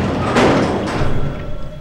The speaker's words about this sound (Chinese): 他听见警察的脚步声，接着门开了，眼前。却出现一张熟悉的脸。